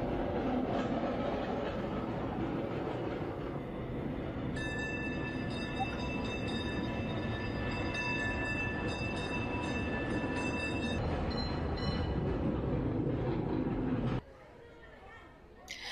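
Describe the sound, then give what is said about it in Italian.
A tram in Milan rumbles steadily along its rails, loud, with a high metallic whine rising over the clatter for several seconds before the noise cuts off abruptly near the end. “risaliamo sul tram e facciamo l'ultima sosta.”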